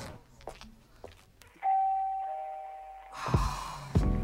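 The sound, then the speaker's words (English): A doorbell rings with a clear two-tone chime, a bright sustained ding followed by a lower dong, after some faint shuffling and ending in a louder clatter. “the sound of freedom. I teleport to the peephole to make sure there's no 911 emergency follow-up house calls.”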